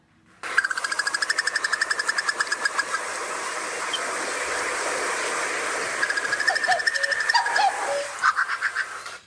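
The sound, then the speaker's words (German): A bird calls with a long, rapid, pulsing trill, a harsh buzzy series of notes lasting several seconds, fairly loud and steady, briefly wavering in pitch toward the end. No talking. “Ja, und es ist tatsächlich so ein Ruf, der, also es kann auch sein, dass ich den schon mal gehört habe, aber der geht dann, ich, ich, der geht dann unter, weil es klingt auch wie ein Greifvogel tatsächlich.”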